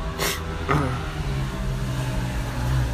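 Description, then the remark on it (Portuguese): A motorcycle passes outside, its engine rumbling steadily: a low droning hum with a couple of brief hissing bursts near the start, moderately loud and without any talking. “Ó, a moto, de novo.”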